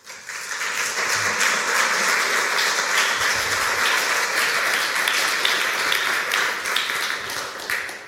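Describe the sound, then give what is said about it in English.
An audience breaks into sustained applause welcoming Dr. Christopher Hamilton before his afternoon lecture introducing Nietzsche's life and work, a dense, steady wash of many hands clapping at even loudness for about eight seconds before tapering slightly at the end. “Please join me in giving a warm welcome to Dr. Christopher Hamilton.”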